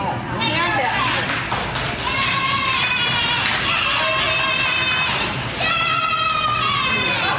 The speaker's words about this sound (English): And then some lady with an equally annoying voice starts to cheer.